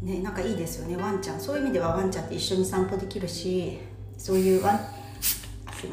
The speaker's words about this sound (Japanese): 炭酸の蓋を開けたらなりました